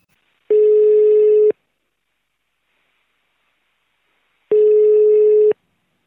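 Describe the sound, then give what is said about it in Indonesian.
Two long, steady telephone ringback tones of an outgoing call, each about a second, separated by a few seconds of silence, clear with no talking over them. “Kita telepon dia sekarang.”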